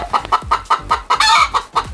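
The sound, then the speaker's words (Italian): A hen clucks in a rapid, rhythmic series of about ten short, loud clucks, with one harsher squawk in the middle and no voices. “Saluto anche la gallina sculacciata che oggi è la special guest.”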